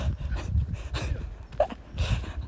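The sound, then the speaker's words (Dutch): Dogs fight and tussle, with rough scuffling, quick panting breaths and a brief sharp yelp-like snort amid steady low rustling and bumping. No one speaks. “Ik vind dat zo mooi, honden vechten.”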